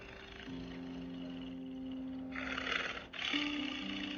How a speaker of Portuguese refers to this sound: aquele tigre, ele é um animal de poder